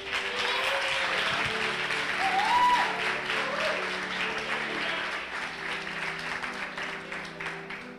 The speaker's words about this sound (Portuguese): Se quiser aplaudir, pode aplaudir.